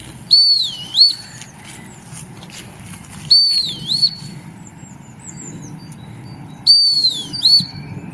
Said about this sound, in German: Wir konditionieren jetzt mal den Rückrufpfiff und ich fange erstmal an, einfach mit einer Konditionierung auf den Pfiff.